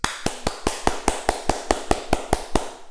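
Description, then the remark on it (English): A steady run of sharp hand claps demonstrating how a growth group clapped to cheer people on: about a dozen in quick, even rhythm over a few seconds, each a crisp, bright smack with no voices in between. “And so we decided in our growth group we're gonna we're gonna clap for people and we're gonna say hey good job and everybody everybody amuse themselves literally clapping like this”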